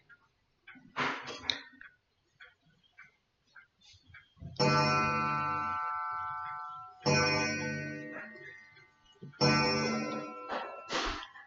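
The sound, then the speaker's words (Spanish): A bell chimes to strike the hour at nine o'clock in the morning. Three evenly spaced strikes are heard, each loud and rich with a long ringing decay. Some brief, scattered sounds come before the first strike. “Estás escuchando las nueve campanadas, son las nueve en punto de la mañana.”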